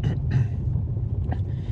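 A steady low rumble fills the space, the muffled drone of the cabin of the speaker's brother's car while driving in Alicante, Spain, at 17 degrees, with faint hiss and a brief soft rustle in the upper range.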